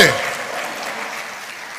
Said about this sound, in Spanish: ¿Le da palma fuerte al Señor?